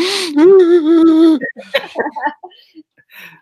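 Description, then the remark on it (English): A voice imitates people sobbing in a silent cinema during a film's funeral scene: a loud, wavering, drawn-out wail, then breaks into shorter broken gasps and whimpers that fade out. “Oh, there were people in the nighttime showing, there were people sobbing.”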